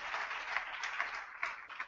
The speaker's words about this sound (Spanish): Ah, denle un aplauso fuerte al Señor. Aleluya.